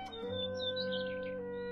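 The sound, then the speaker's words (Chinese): A flock of birds in a tree chirp and twitter in quick, high, fluttering calls over a steady sustained musical tone, all at a moderate level for just under two seconds, with no voices. “有一天，小黑熊从森林里走过，他看见树上有一群鸟儿，于是他就冲着鸟儿叫道”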